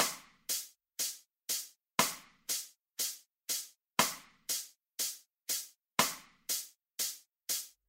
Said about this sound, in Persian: ما به ازای هر ضرب یک صدا رو خواهیم داشت پس توی هر میزان ما چهار ضرب خواهیم داشت صدایی که میشنوید یک ریتم چهار ضربی در کسر میزان چهار چهارم هست